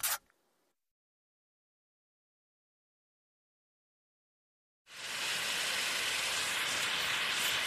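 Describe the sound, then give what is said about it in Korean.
A brief burst of noise cuts off into several seconds of silence, then a vacuum cleaner is switched back on and runs with a loud, steady roar until the end as someone vacuums the living room. “다시 청소기를 켜고 거실을 훑어나간다.”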